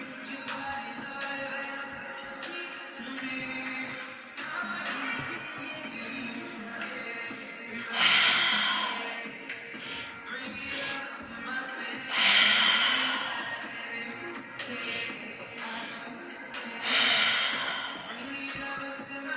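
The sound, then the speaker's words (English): Three loud, exaggerated deep breaths, each a long rushing inhale-exhale, spaced about four seconds apart, over a soft, steady droning backdrop. “Give yourself permission to open your mouth, relax your lungs, take in the biggest deep breaths you can, and let the breath fall out with sighs.”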